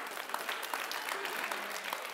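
A steady burst of applause from a group, dense overlapping claps filling the whole stretch at an even, fairly loud level with no pauses.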